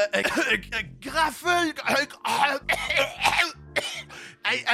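throat clearing and coughing

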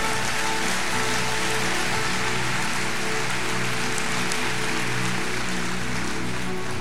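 audience applause

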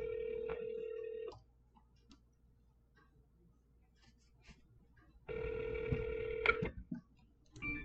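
outgoing phone call ringing

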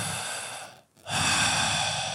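deep

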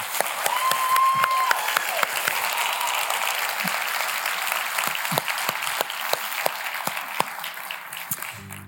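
audience applauding and cheering

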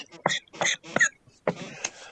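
coughing

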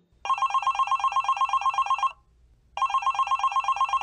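telephone ringing

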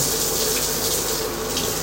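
water running

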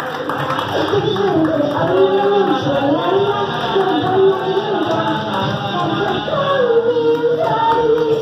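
audience applause

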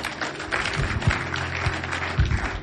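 audience clapping

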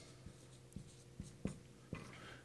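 writing on a board

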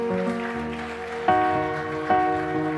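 audience applauding loudly

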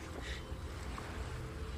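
ocean waves crashing

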